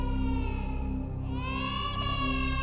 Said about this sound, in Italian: Mentre avete gli occhi fissi su quel buco nel soffitto, è come un'impressione, ma vi arriva un pianto di un neonato lontano.